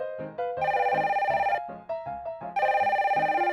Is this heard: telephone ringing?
yes